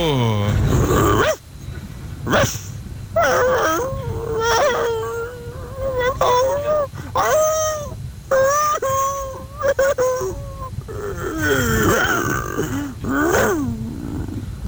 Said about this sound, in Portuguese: Tá aí a opinião do cachorro.